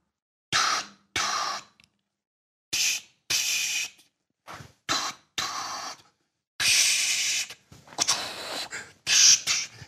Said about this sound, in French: il fait « Et maintenant, nous allons balancer le bruit rose. » Donc, tu appuies.